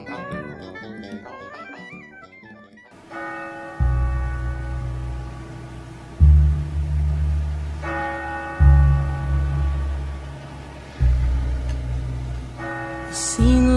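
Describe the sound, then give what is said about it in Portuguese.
A small church bell strikes several times at uneven intervals of a few seconds, each ringing tone lingering and fading over a deep, rumbling low drone. “O sino da igrejinha faz Belém, dendem.”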